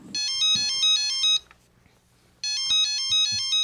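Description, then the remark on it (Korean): A mobile phone rings during dinner after a movie, its ringtone playing a bright, repeating electronic melody in two bursts separated by a brief pause, loud, with no voices. “그 사람과 만나 영화를 보고 저녁을 먹고 있는데 그 사람의 휴대폰이 울렸어요.”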